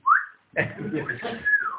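A person whistles to a woman as a way of telling her 'I love you': a short upward-sliding whistle, a brief pause, then a longer, warbling whistled phrase with a breathy, voice-like texture, moderately loud throughout.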